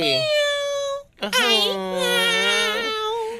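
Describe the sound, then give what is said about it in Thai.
An orange-yellow cat meows twice, loud: a short plaintive call, then a longer drawn-out meow that wavers in pitch before trailing off. “น่ารักมากครับน่าเอ็นดูน่ารัก น่าชังจริงๆครับอยากฟังเสียงมันอีกครั้งไหมล่ะ ได้เลย”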